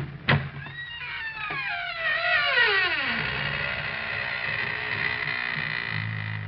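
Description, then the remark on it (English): The squeaking door of the Inner Sanctum radio program: a long, drawn-out creaking squeak of a door swinging open, its pitch sliding down in a wavering groan over about three seconds before fading into a low hum. An abrupt knock marks the start. “And now we open the squeaking door.”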